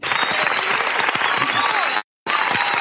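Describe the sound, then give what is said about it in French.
A crowd claps steadily and densely for about two seconds, loud, then it cuts out briefly before the applause resumes just as strongly. “Encore heureux je t'applaudis d'avance.”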